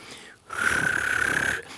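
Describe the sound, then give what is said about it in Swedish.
A person imitates a finch's whirring call with one breathy, buzzing trill lasting about a second. It holds a steady high pitch with a rapid fluttering pulse and is fairly loud. “Den, den, den gör en massa svirranden och så kväker den ibland som en groda.”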